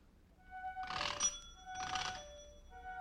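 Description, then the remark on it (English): An old-fashioned doorbell at number 14 Pembroke Street in Glasgow, Scotland, in 1857, rung impatiently, rings twice in quick succession, each a short, bright metallic jangle with a brief pause between, fairly loud, with no voices. “That's the way the doorbell sounded at number 14 Pembroke Street in Glasgow, Scotland.”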